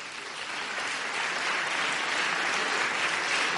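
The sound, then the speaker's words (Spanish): An audience applauds steadily as two people from camisasblancas.com are called up to draw, a dense wash of many hands clapping that holds a constant, fairly loud level throughout without any voices. “Un aplauso.”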